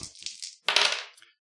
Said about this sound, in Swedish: Ja, och jag slog en sexa.